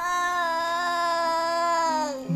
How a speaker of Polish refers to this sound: Kiedy dziecko przy ćwiczeniach płacze albo żali się, no to rzeczywiście nie wszyscy wytrzymują.